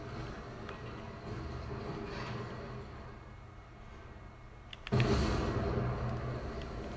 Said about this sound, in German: Ach, ich fahre mit einem Panzer. Und ich fahre gerade alles zu Schrott.